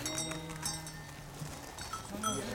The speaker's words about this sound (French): On possède ce qui va nous permettre de produire de l'agneau, c'est-à-dire des brebis. En même temps, on est herbacier, c'est-à-dire qu'on ne possède pas tous les moyens de production. On possède des brebis, mais, pas l'herbe qui les nourrit.